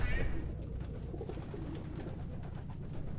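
Pigeons coo in low, throaty, rolling murmurs, several birds overlapping steadily, with a brief higher chirp at the very start.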